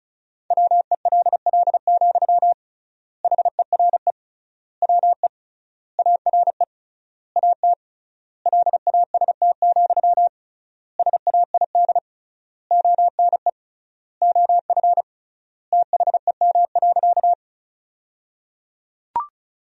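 Fast Morse code beeps at 35 words per minute with triple word spacing, sending sentences built from the 300 most common words, on a single steady pitch, rapid dots and dashes grouped into words with clear pauses between them, loud and alone, ending with a faint click.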